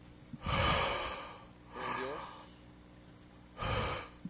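Three heavy, forceful breaths, each a broad noisy rush of air lasting about a second, separated by short pauses. The breathing is close and fairly loud, with no talking.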